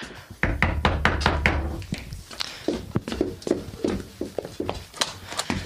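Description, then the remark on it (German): Loud knocking by police on the wooden door of a home at a late hour: a quick burst of raps at first, then slower, uneven thumps that continue to the end, with no voices. “Machen Sie die Tür auf, wir wollen mit Ihnen reden.”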